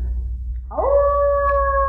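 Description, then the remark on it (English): A dog lets out a long, steady howl that rises in pitch and then holds a sustained, clear tone, heard alone over a low background rumble with no talking. “The dog howled.”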